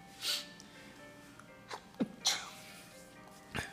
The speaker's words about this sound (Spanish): Perdón, estornudé.